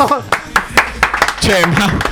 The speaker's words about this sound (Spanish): Un aplauso.